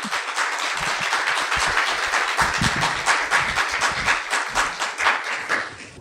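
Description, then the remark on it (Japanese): Steady applause from a lecture audience welcoming a speaker, a dense wash of many hands clapping at once, sustained for several seconds with no talking. “皆様、拍手をもっと迎えください。”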